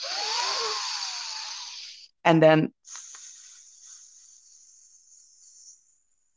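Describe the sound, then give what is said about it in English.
A person doing a breathing exercise breathes in, then exhales on a long, hissing "s": one loud burst of hiss, a couple of spoken words, then a steadier, softer sustained hiss that slowly fades out. “that i was calling the sneaky snake um, breathing technique when you breathe out on the s so you breathe in on the four and you do”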